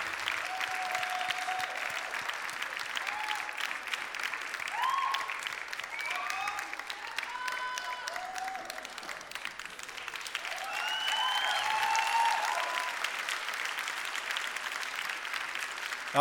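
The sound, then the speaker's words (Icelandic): A crowd applauds a band, second place at Músíktilraunir 2019, steadily for about sixteen seconds, dense clapping with scattered whoops and whistles rising above it, swelling briefly louder near the end before holding on. “gefum þið gott klapp, hljómsveitin … og svo segið þið eitthvað endilega.”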